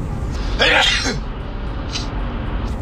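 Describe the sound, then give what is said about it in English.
A single sharp sneeze bursts out, a quick noisy explosion of breath that fades into a brief exhale, followed by a soft breathy sound in the quiet afterward. “Ah, oh, I just sneezed.”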